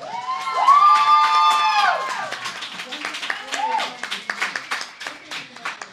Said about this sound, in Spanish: así que aínda que hoxe Ana non este aquí porque está pasando ben por ali, por favor, un aplauso moi forte para Ana.